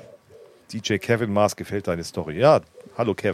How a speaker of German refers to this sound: hört, ihr die, hört ihr die Taube? Also ich höre sie über Kopfhörer. Da müsst ihr sie doch auch hören im Chat, oder?